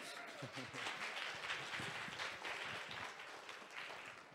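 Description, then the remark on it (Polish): A crowd applauds steadily, a dense wash of many hands clapping together that holds at an even level throughout, with faint voices murmuring beneath it. “Jak najbardziej zasłużone brawa.”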